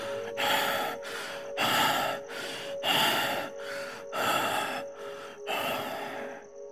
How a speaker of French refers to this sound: Now you have reached the top of the mountain. Maintenant, vous avez atteint le sommet de la montagne. Your breath continues to rasp in rapid gasps. Votre respiration continue à halter de façon rapide et rugueuse.